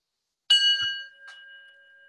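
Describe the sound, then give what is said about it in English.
A single meditation bell is struck once, giving a bright metallic strike that rings on in a long, steady, shimmering tone that slowly fades, with a faint second touch partway through. No one speaks. “for instance um, if you take a bunch of normal people and you sound the bell like this”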